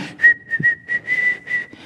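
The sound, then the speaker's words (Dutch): A person imitates the whistling of someone who sat at the table: a short, bright tune of several quick notes with brief breaks between them, with no talking. “Dus in het begin, de eerste maanden, als ik thuis kwam, dan zat hij aan tafel en dan begon hij te fluiten.”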